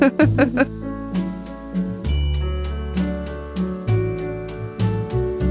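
A slow, romantic pop ballad opens with sustained organ-like chords over a deep bass line and soft, steady beats. It plays loud, with no vocals yet.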